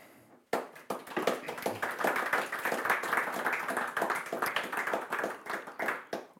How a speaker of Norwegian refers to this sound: I seg sjøl har jeg eh, litteraturviter og kritiker Espen Grønli. Gi han en varm applaus.